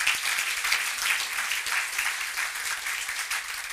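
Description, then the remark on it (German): An audience at an evening event applauds steadily after thanks to the organising team, a dense, bright wash of many hands clapping at once with no pauses, holding a fairly even loudness throughout. “Und nun, ja, darf man wirklich ruhig klatschen.”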